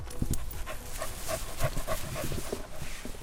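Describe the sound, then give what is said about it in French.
A truffle-hunting dog pants in quick, steady breaths, with a few soft, high whimpers mixed in, as it sets out to search for truffles. No one speaks. “Donc, je vais aller chercher ma veste, comme ça le chien va savoir qu'on travaille et puis euh, il va essayer d'en trouver.”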